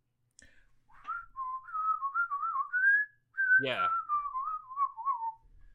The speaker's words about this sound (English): There's Mickey just whistling away with those nice perky lips.